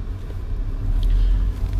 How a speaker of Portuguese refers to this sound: Estou falando de Goiás, Anápolis, colégio, gente miúda, as proximidades aqui do colégio que tem um fluxo de carros muito grande em qualquer horário do dia, especialmente no horário de entrada e saída de alunos.